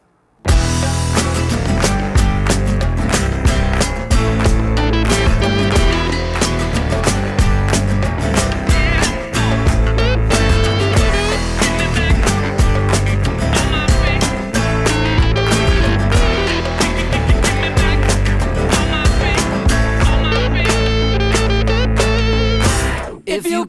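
A loud rock song with distorted guitars, heavy bass and drums plays continuously for the whole stretch, dense and full, with no talking over it.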